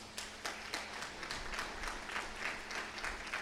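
An audience applauds to God, a steady wash of many hands clapping at a moderate level, with rhythmic bursts pulsing through the crowd noise and no voices standing out.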